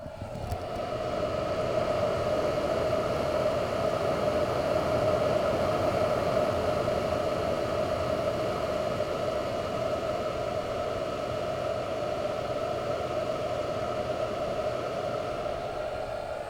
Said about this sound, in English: That, my friends, is the sound of my e scooter battery charger. Sounds rather like a hairdryer, I think